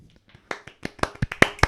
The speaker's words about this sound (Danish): Man skal, man skal, man skal, man skal knipse der. Sådan der, sådan der, sådan der. Yes. Tak, tak for knips.